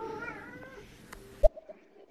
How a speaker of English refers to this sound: Yes, my cat is meowing because she loves it too.